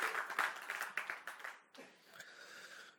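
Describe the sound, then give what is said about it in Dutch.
A church audience breaks into applause for God, a dense patter of many hands clapping that is loudest at first and then thins into a softer, steady wash of scattered claps. “Zullen we God daar eens een applaus voor geven?”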